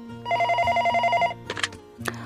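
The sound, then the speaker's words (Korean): A telephone rings with a single bright, fast-trilling electronic burst lasting about a second, fairly loud, as complaint calls come in, followed by a couple of short clicks and knocks. “그런데 오늘 그녀가 또 한 건을 하는 바람에 여기저기서 항의 전화가 왔습니다.”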